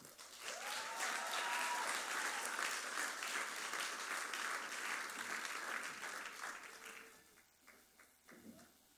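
Sustained audience applause, a dense wash of clapping that holds steady for about seven seconds, then thins out into scattered claps and fades. A faint whistle-like tone rises briefly early on.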